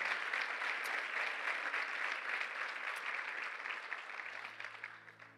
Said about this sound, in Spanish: Dale bien fuerte el aplauso al Señor. Aleluya.